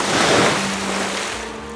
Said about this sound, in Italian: All'impatto con l'acqua, gli spruzzi si sollevano in ogni direzione e sia la fata che la strega si ritrovano bagnate fradice.